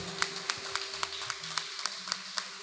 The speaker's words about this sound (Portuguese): Vamos dar um forte aplauso para Jesus, que Deus é fiel.